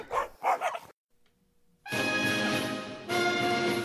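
A few sharp dog barks sound, then after a short silence comes a loud, sustained stretch of rough, noisy barking and snarling.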